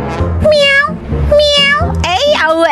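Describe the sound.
A person imitates a cat, letting out three drawn-out, whiny meows in quick succession, loud, with a low rumble of background noise underneath.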